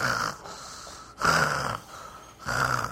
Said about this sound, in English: What I do get is what kind of sounds am I getting here? These are bad sounds coming from someone. That snoring.